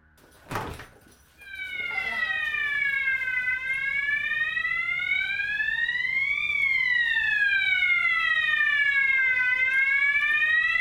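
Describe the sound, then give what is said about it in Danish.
A loud electronic fire alarm wails continuously, its pitch sweeping slowly up and down in a steady cycle, preceded by a brief thump at the start. “Jeg tror, det er brandalarm.”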